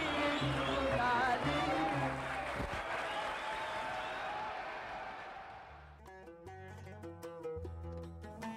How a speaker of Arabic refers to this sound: حتى يطلع صوت ثلاث آلات بالتزامن تكمل اللحن وبعد الصمت السائد يفهم الجمهور ما يحدث فيصفقون بحرارة